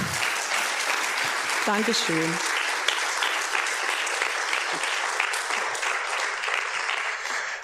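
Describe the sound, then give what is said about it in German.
Sustained audience applause at the end of a book reading, a dense steady wash of clapping that stays loud for the whole stretch, while a voice briefly says a few words of thanks over it near the start. “Ja, Applaus.”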